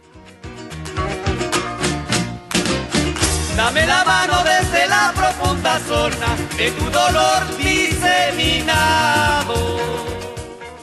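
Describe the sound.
A Chilean band plays a full, loud song with a male voice singing over dense guitars, bass and drums. The music stays steady throughout, with no talking over it.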